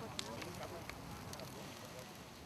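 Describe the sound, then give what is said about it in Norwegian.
A large funeral pyre burns steadily with a broad roaring hiss and scattered sharp crackles and pops, fairly loud, while a coffin is carried to the fire and faint indistinct voices murmur in the background. “En ny kiste bæres til bålet. Likbålene vil brenne i mange dager ennå.”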